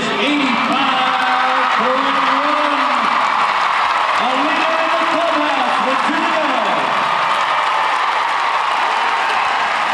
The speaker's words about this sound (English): Steffen Peters takes the lead with 85.1, overtaking Isabell Werth. The crowd on their feet. They are a ecstatic with what their homeboy has done. Steffen Peters take the lead on his horse Ravel.